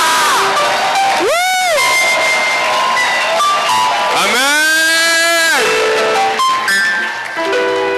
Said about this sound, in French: Mais dans la maison du Seigneur, on acclame le Seigneur. Et c'est avec des cris de joie.